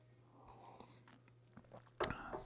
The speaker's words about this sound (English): So I'm going to have one sip of coffee and let's pray.